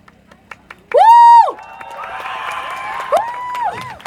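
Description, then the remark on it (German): A crowd at a demonstration against right-wing extremism cheers loudly: a sharp, rising whoop bursts out, then a sustained wash of shouting and cheering continues, with a few more whoops rising above the noise. “Laut waren wir schon alle.”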